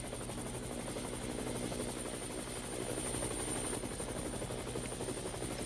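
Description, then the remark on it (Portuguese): A helicopter taking off, its rotor blades chopping in a loud, rapid, steady beat beneath a heavy engine roar, continuous, with no voices. “Saiu correndo do estúdio e foi direto pro helicóptero.”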